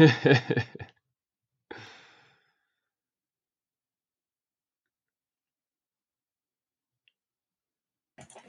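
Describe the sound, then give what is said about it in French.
A door is pushed shut with a soft thud after a short burst of shuffling noise, followed by a long stretch of near silence and a faint click or two at the end. “Puis si tu m'attends 30 secondes, je vais juste fermer la porte.”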